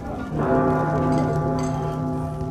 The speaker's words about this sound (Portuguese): Aquele mesmo sino que tocou quando vocês entraram Campos Dourados, ele volta a tocar.